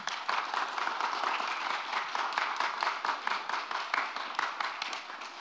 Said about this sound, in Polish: Wielkie brawa poprosimy dla autora.